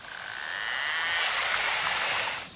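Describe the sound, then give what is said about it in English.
A narwhal's buzz made of rapid clicks that speed up into a dense, rasping drone, swelling louder over a couple of seconds before cutting off, with no voices present; the narwhal makes this noise as it gets closer and closer to food. “Well, scientists realised that narwhals made this noise when they were getting closer and closer to food.”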